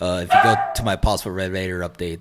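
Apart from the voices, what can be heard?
dog barking and whimpering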